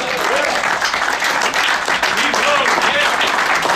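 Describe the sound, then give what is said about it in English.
A large audience stands and applauds loudly and continuously for an APBA Hall of Famer, dense clapping filling the whole stretch with scattered cheers and whoops rising above it, sustained like a standing ovation. “So please stand and give a loud ovation for APBA Hall of Famer”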